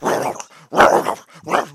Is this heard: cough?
no